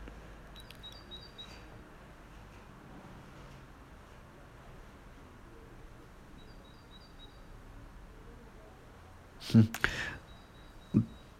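A small bird chirps in short, high twittering bursts, faint and somewhat distant over a steady outdoor hiss, with a couple of sharp handling knocks near the end.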